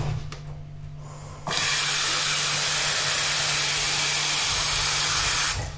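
A coffee machine bursts into a loud, steady hiss of steam as coffee is being made, after a brief low hum, holding at an even level for about four seconds before cutting off. No one speaks.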